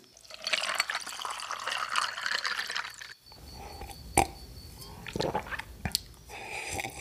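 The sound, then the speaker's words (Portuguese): Water pours steadily from a glass bottle into a glass cup for about three seconds, followed by a few sharp glassy clinks and soft gulping sounds as someone drinks. “Trouxe uma garrafa com água para que todos possam beber quando tiverem sede.”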